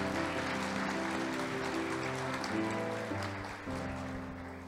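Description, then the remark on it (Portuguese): An audience at a church service applauds the Lord steadily for several seconds, a dense, even patter of clapping layered over sustained instrumental chords, with no talking, easing off slightly near the end. “Quem recebe, aplauso o Senhor em nome de Jesus.”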